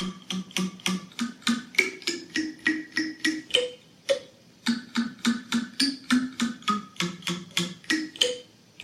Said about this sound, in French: Eh ben, c'est un clavier construit à partir de bâtonnets d'esquimaux. des bâtonnets d'esquimaux en bois, hein, fixés sur une planchette, en bois aussi, et réglés pour vibrer sur les fréquences des notes de la gamme quand on les pince du bout